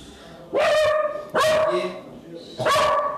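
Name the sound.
dog barking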